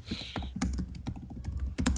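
Rapid, irregular clicking of keys on a computer keyboard, fairly clear, with a few sharper key strikes standing out; no one speaks.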